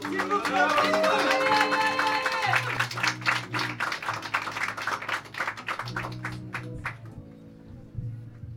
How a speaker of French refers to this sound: d'applaudissements d'encouragement